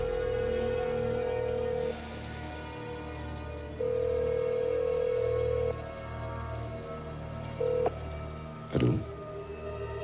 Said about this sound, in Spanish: A continuación, marca un número de teléfono y realiza una llamada.